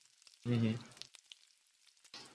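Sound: heavy rain falling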